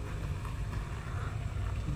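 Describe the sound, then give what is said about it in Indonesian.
A motorcycle passes by outdoors, its engine a low, throaty drone holding an even loudness throughout with a faint windy hiss on top; no voices. “okay, ada motor lewat oke okay, Oke ini kita syutingnya di luar, eh syuting kebiasaan wah ngevlog.”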